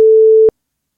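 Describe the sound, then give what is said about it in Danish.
A single steady electronic telephone ringing tone while placing a call to someone, a plain mid-pitched beep lasting about half a second before cutting off into silence, heard clearly and alone with no voices. “Nu ringer vi lige til Simon og hører, hvad han, hvad han siger.”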